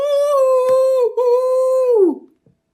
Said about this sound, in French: Le loup C'est sûrement le loup s'écrièrent les fées en prenant leurs jambes à leur cou.